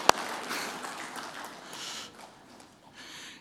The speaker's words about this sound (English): Anybody with me? Can I get, get us some applause?